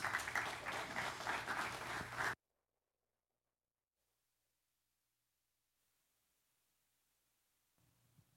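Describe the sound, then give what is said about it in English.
A large audience claps warmly to welcome a speaker, a dense, loud wash of applause that cuts off abruptly after about two seconds, followed by near silence and a faint murmur at the end. “So let's go ahead and give. Land in a very warm applause.”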